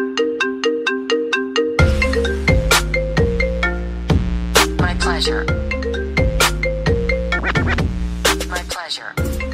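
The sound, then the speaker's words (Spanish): A bright, synthetic electronic jingle like a polyphonic phone ringtone, used as a program section's own theme tune: quick repeating tones at first, then a fuller melody with a steady bass line, loud, played alone. “Bueno, pues le tiene hasta su propio tono musical, que casi parece un tono de un móvil, un politono, no sé ya sabes lo que significa eso.”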